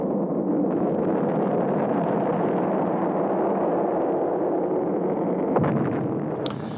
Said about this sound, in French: Une gigantesque lueur rouge et jaune naît à la base de la fusée qui commence à s'élever lentement, verticalement. Tout le cap resplendit. Plus 8, plus 9, plus 10. La fusée s'élève toujours dans le vrombissement de ses réacteurs.